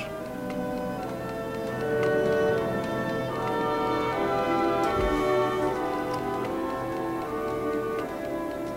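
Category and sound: household object, clocks ticking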